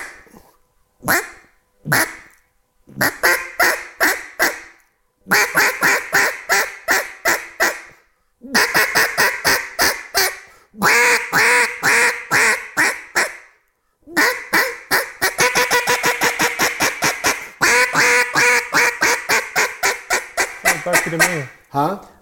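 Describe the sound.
Loud duck quacks blown on a single-reed duck call using the front of the mouth, coming in choppy bursts of rapid honking notes that build into a long, fast run of quacks. No voices.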